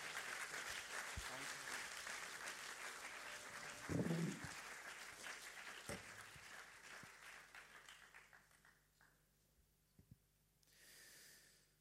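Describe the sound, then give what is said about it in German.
An audience applauds with dense, steady clapping that holds strong for several seconds, then thins out and fades away, with a few scattered claps near the end. “Hey, ich immer einen Applaus geben.”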